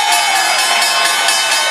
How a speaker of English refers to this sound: And there's the opening bell here at the New York Stock Exchange.